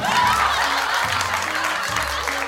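Sustained applause from a large audience filling a hall, a dense steady wash of clapping with crowd murmur beneath, loud and continuous throughout.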